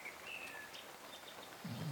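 Faint birds call and whistle in thin, scattered phrases over a soft hiss of forest ambience in the morning, with a lower cooing tone rising near the end.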